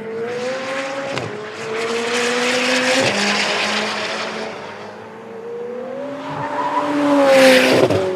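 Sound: sports car engine accelerating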